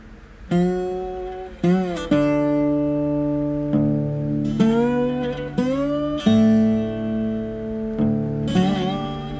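A man kneeling on the ground plays a guitar: slow, ringing notes that bend and slide into pitch, several sustained phrases at moderate volume, with no voices.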